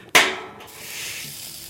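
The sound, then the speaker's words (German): A sharp pop as the middle gas burner is lit with an igniter under a homemade round metal plate set on a discarded petrol drum, followed by a steady, airy hiss of flame and marinated carrots sizzling on the plate, with no voices. “Die Möhren brutzeln schnell.”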